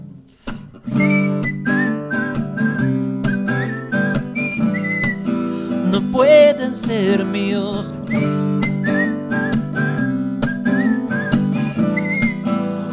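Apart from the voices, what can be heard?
whistling a melody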